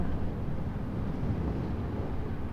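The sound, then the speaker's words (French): A steady, deep rumble of waves rolls on without a break, like a continuous drumroll, with the Mistral wind blowing offshore from the land and pressing over the waves, slowing them. Recorded at night. No voices, just a dense, even wash of low sound. “Et c'est ce ralentissement qui fait avec la, la pression du vent cette rumeur de basse, de grave, espèce de roulement de tambour continu.”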